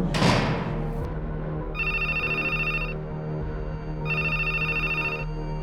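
A telephone rings in two bursts of bright, trilling electronic tones separated by a pause, clear, over a low steady hum after a brief thud at the start.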